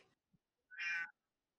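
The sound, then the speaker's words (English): A single short cat meow, clear, sounding on its own after a brief faint noise, with silence around it. “kitty cat agrees.”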